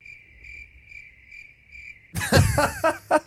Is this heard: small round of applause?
no